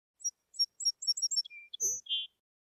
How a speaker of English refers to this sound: Finally, Little Bird flew over to Andrew, landed on his shoulder, and tweeted as loud as she could to get his attention.